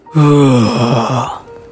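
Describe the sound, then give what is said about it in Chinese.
A voice imitates a wolf's roar, "吼!", with one long, drawn-out vocal cry. It has strong harmonics, a wavering pitch that dips and wobbles, and it trails off after about a second. “野狼再说了一次：“ 吼！”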